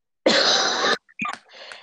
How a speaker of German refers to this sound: ich muss kurz husten. Coronavirus. Ich verschluck mich heute schon den ganzen Tag.